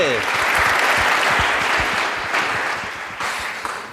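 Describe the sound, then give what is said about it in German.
An audience at a panel discussion on sustainability applauds steadily, a dense wash of clapping that holds strong throughout and begins to thin slightly toward the end. “Applaus”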